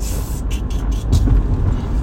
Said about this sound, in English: Ooh. Ooh. This motherfucker sound like a Hellcat engine under here.